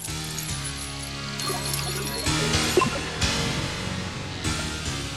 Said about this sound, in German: Er hat den tanzenden Teufel verbrannt. Also man hört gar kein Feuer, da ist jetzt nur dieser komische Synthi-Sound und ja, das ja. war's.